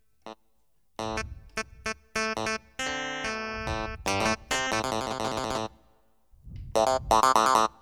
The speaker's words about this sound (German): Ja, sowas ist ganz lustig, ne? Klavinett oder Klavi, ja, so ähnlich heißt das, glaube ich.